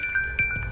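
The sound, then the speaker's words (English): A short electronic alert from a mobile phone plays, a few quick tonal pulses with a steady high pitch, fairly clear, with no talking over it. “I apologise for that. That was my phone.”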